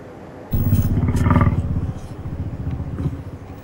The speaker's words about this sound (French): C'est pas une petite bestiole, ça. Un éléphant Mais non, c'est le mammouth laineux. Tu as choisi une bestiole fossile.